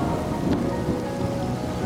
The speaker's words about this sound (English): Just then, a great crack of thunder comes down from above.